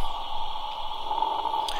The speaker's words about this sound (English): This is the exact hum you hear in the background of any scenes that are filmed on Doctor Who for the interior of the TARDIS